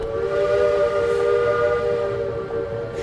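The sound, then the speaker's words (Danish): A huge passenger steamship's deep whistle blows continuously, loud and steady with rich harmonic tones, held for the whole stretch without a break and no voices present. “Et kæmpe dampskib med plads til masser af passagerer i bitte små køjer og kahytter.”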